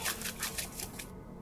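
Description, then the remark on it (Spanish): Dry leaves rustle and crunch in a quick, steady series of about six bursts as a group of people walk through a forest, fairly loud, before trailing off into quiet. “Entonces imagínate que este grupo de personas, de los primeros humanos, van caminando por el bosque, se escucha el sonido de las hojas y de pronto sienten que algo se está moviendo.”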